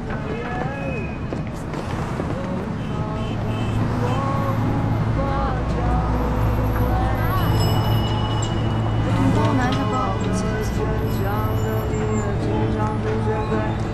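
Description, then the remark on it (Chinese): Busy ambience at Jishuitan station on Beijing Subway Line 2: a steady low rumble of trains and machinery under a mix of overlapping voices, with brief tonal beeps, train stop announcements, staff prompts and escalator safety announcements rising above the crowd. “地铁二号线的积水潭站，你可以听到地铁报站的声音，听到地铁站内工作人员的提示的声音，还有电梯的提示声，以及走出地面之后积水潭的那些生活的声响。”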